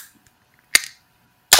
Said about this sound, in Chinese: 那我就先开一个啤酒，让大家享受一下开瓶的声音了啊！